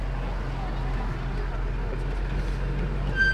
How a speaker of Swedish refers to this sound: Det skriker till i vagnen när Sten bromsar för att hålla den på vägen.